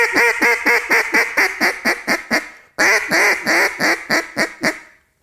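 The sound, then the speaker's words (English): Two quick sequences of duck hen quacks from a duck call: first a tighter, faster fine hen run, then a pause before a louder, harsher boss hen run that slows and trails off. Nasal, raspy and rhythmic, with no talking. “You just know that fine hen's a little bit tighter, a little bit faster, and then going up to, to the boss hen”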